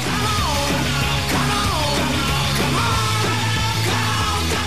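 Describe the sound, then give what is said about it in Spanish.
A gas vendor's street cry, "¡Salgan al gas!", shouted loud, its drawn-out sliding calls repeating roughly every second over a steady, continuous musical backing. “Está bonito mi grito, ¿no? De. Mi grito de guerra.”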